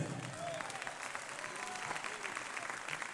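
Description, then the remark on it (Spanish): An audience at a church service applauds the Lord steadily, the dense clapping filling the whole clip at an even level, with a few faint voices and cheers rising above the noise. “Gloria a Dios, le damos un fuerte aplauso al Señor por eso.”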